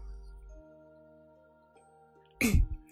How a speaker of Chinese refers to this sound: 这时，…咳嗽一声，给出了一个所有人都没有想到的答案。